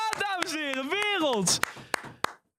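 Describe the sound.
Scattered, sharp handclaps from a show audience, about a dozen, ring out as the first guest is welcomed, over a loud voice that swoops up and down in a drawn-out, sing-song way. The voice stops first, leaving a few final claps alone.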